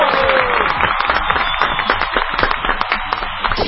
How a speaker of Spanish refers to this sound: ¡Un aplauso!